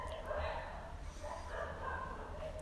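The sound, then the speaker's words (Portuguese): Dogs bark, a few overlapping barks and yelps in short bursts, fairly faint against a low background rumble. “Olha os cachorros, olha os cachorros.”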